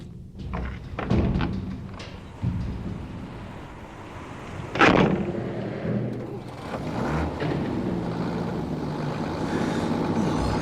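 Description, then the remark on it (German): A delivery truck bringing the remaining groceries rumbles steadily through an opened lock gate, its low engine drone punctuated by a few heavy thuds and one loud, sharp clunk midway. No one speaks. “Sobald der Wagen hält und der Lieferant die ersten Kisten rausgeschleppt hat, verduften wir.”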